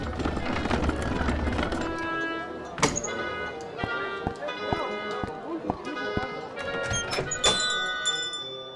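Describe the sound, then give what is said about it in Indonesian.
Horse hooves clip-clop in a steady, evenly spaced rhythm as a fine royal horse-drawn carriage rolls into a market, the sharp knocks set against a bright, tonal musical backdrop with a few louder accents. “Para warga yang berada di pasar pun menoleh dan memperhatikan kereta yang bagus itu.”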